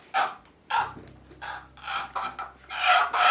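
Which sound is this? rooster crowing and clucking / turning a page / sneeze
rooster crowing and clucking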